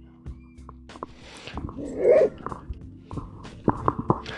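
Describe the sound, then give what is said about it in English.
An upset puppy, upset by another dog, barks and yelps in short, uneven bursts, with one louder whining cry in the middle, over a steady low background hum. “had to pause it because I had some dog issues. Sport was, sport made some poor puppy very unhappy”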